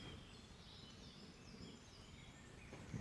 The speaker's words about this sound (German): Ich weiß nicht, ob ihr die Vögel im Hintergrund hört.